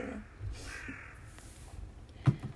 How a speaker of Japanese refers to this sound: カラスが鳴いてますね外でね